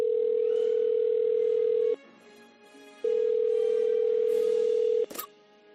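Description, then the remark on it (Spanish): A telephone tone rings out while a call is placed to a professor and researcher: two long, steady, low-pitched bursts separated by a short pause, then a sharp click as the line connects. No voices. “Y por eso vamos a llamar”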